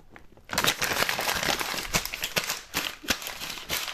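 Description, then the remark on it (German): Continuous paper rustling and crinkling begins after a brief quiet moment, with irregular sharp crackles and crumpling bursts spread across a few seconds. “Das ist nicht mein Papier.”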